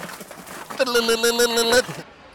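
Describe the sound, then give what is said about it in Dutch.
A musical car horn at a cycling race blares the short, bright Rodania tune of quick stepped notes lasting about a second, loud, over a murmur of background crowd noise. “Ja, dit is natuurlijk de koersklank. En we horen heel veel varianten.”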